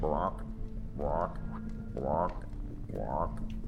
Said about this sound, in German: Ich höre noch einen Frosch. Mhm. Ja, die hörst du tatsächlich.